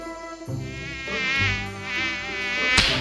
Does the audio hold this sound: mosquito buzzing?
yes